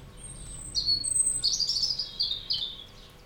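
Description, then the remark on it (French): A bird sings a bright, high warbling phrase of rapid chirps and trills, steady, over faint low rumbles of distant thunder. “Parfois on entend quelques grondements d'orage loin, au-delà de l'oiseau qui chante.”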